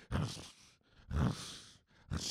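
A voice imitates the heavy rumble of the wheels of many carts, some 1200 wheels, with three rough, growling bursts, loud, separated by brief pauses.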